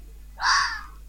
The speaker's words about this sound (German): Leiser Fuchs. Nicht so laut wie unser auf jeden Fall. Ich höre ein ganz, ganz leises Geräusch.